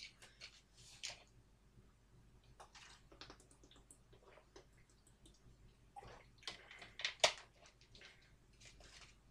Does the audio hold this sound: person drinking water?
yes